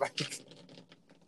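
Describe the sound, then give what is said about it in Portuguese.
Rain patters faintly and irregularly, a loose scatter of soft taps and hissy bursts that is loudest at the start and then thins out over the short stretch. “Tem uma chuva aqui agora.”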